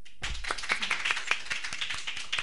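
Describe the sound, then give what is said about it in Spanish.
A short burst of applause for the female guests at the close of a program: several people clapping in a quick, uneven patter of sharp hand claps at steady moderate loudness, with no voices. “Pues igualmente, y ahora quiero un aplauso para ellas, hombre.”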